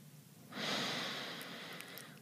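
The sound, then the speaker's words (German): A single long, steady exhale during a guided breathing exercise begins after a brief quiet moment, a soft breathy rush of air lasting over a second and fading gradually, heard alone without talking. “Wir atmen nochmal ein und wir atmen nochmal aus.”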